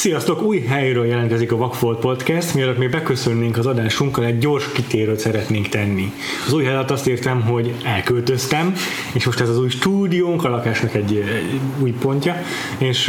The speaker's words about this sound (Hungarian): bocsánat, hogy esetleg máshogy visszhangzunk, mint eddig, vagy mások az alapzajok, mint eddig, ezzel majd igyekszünk azért finomítani, most még nagyon a költözés közepén vagyunk.